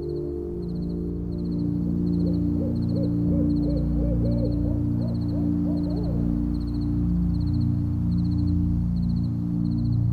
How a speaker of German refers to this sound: Du hörst das leise Zirpen der Grillen, das ferne Rauschen des Windes in den Bäumen und gelegentlich eine Eule.